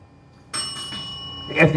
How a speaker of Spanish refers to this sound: me sonó la campana.